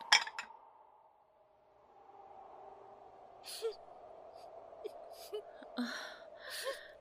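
Faint crying, a thin wavering wail with breathy sobs and gasps, following a sharp metallic clink at the very start.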